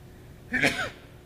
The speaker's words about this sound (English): Gesundheit.